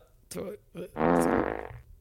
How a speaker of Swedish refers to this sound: Vänta lite, jag ska, bara, jag ska bara släppa lite fisa. Vänta.